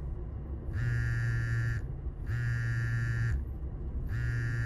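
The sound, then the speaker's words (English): A phone vibrates with an incoming call, three rhythmic buzzes of about a second each separated by short gaps, a steady low rattling drone with a thin high edge, over faint background noise. “Are you gonna answer that?”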